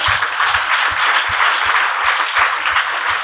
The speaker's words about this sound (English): Somebody clap for to God.